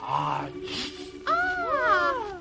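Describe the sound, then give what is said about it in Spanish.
A voice imitates the giant Gulliver's huge sneeze: a drawn-out "ah" rising into a short, forceful noisy burst, followed by several loud whistle-like tones swooping downward in pitch. “Estornudó Gulliver con todas sus fuerzas y los enanitos que se paseaban sobre su cuerpo salieron volando a varias leguas de distancia.”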